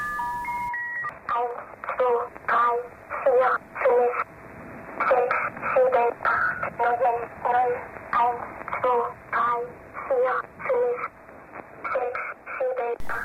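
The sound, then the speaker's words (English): A numbers station broadcast: a brief electronic tone opens, then a synthesized, childlike German voice, most likely from a German machine called a speech Morse generator, reads out numbers in steady, evenly spaced bursts over a thin, band-limited radio signal. “However, it was discovered that the voice most likely came from a German machine called a speech Morse generator.”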